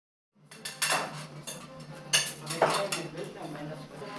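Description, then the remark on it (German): Cutlery scraping and clinking against dishes at lunch in the well-filled dining room of a street outreach clinic in Ingolstadt, where about 20 people have come for a warm meal, with scattered bright clinks over a steady murmur of background chatter. “Der Speiseraum ist gut gefüllt, etwa 20 Personen sind da, um eine warme Mahlzeit zu”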